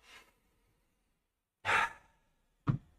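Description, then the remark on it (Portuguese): A deep, audible breath taken in and then let out as a long, airy sigh, with a soft breathy sound before it and a short puff of air after. “Quantas vezes você respira fundo no seu dia?”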